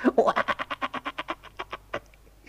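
A rapid, rhythmic series of about a dozen croaks, fairly loud, slowing and fading toward the end, apparently a human voice imitating a frog.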